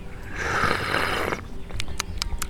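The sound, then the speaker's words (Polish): A person imitates a slurping sound with their mouth: one long, airy slurp lasting about a second, followed by a few short, wet clicking smacks. “Teraz będę siorbał sam”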